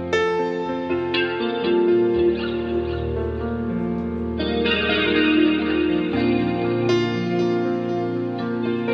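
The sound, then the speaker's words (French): Marco Parisi plays the Rise, a 49-key keyboard controller with five-dimensional keys that controls computer-generated sounds, producing sustained, guitar-like electronic tones with a chorused, slightly distorted sheen, shifting chords every second or two at a steady loudness, with no talking. “C'est un clavier de 49 touches, pas plus, mais les touches sont en 5 dimensions.”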